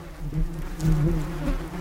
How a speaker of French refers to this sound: Les abeilles vivent dans un univers de vibrations. Fermons les yeux. Imaginons entendre le bourdonnement d'une abeille.